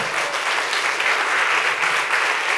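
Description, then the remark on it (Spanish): A large crowd applauds loudly and steadily, a dense wash of many hands clapping together with no pauses, filling the whole space and continuing throughout. A church audience is applauding after a prayer in the name of Jesus. “Fuerte ese aplauso.”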